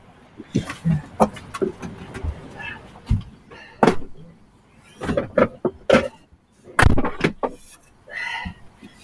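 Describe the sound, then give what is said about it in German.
A door is handled and pushed shut, with a series of sharp knocks, rattles and clicks spread over several seconds, and a faint rumble of passing trucks behind. “Ich mache mal ja. kurz die Tür zu, jetzt fahren ja.”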